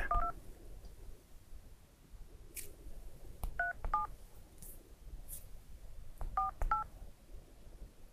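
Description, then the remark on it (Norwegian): A phone number being dialed on a keypad: short dual-tone beeps in quick clusters, a few near the start, a pair in the middle and several toward the end, over a low background hum. “Da skal vi ringe”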